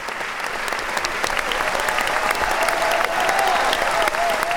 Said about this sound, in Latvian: Arī 10. novembra kamēlī dāma tika sveikta ar ilgiem aplausiem galvenajiem solistiem